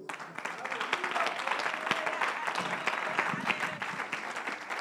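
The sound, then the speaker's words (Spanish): An audience at a church service claps to give applause to the Lord, a dense crowd applause sustained at fairly even loudness for several seconds, with no voices rising above it. “Demos un aplauso al Señor.”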